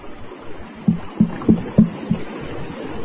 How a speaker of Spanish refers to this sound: Díganme que no escuchan ustedes como que alguien está tocando. como hablando también, Sí, pero se escucha como que alguien quiere salir de ese cuarto y está tocando y tocando y tocando la puerta hoy.